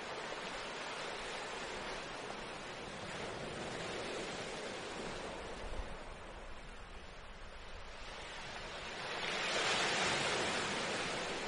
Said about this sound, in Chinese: 沙滩上，海浪一下一下的拍打过来。